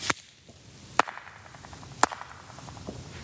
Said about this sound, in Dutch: Ik kan niet zingen, dus klap maar. Maar er is hier natuurlijk een fantastische eh, akoestiek. Ja, schitterend.